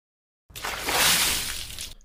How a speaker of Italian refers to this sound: Mi risveglio dopo alcuni secondi con una secchiata d'acqua fredda in faccia.